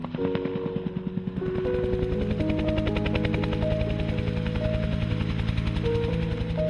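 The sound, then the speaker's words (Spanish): A helicopter flies steadily over the route of a 1986 rally race, used to supervise the route, its rotor blades thumping in a fast, even chop over a droning engine hum. The sound stays loud throughout, with no one speaking. “Sabin subió en helicóptero para supervisar la ruta de la carrera”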